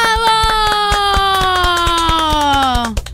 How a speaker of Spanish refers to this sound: Eh, tristón el aplauso igual, ¿eh?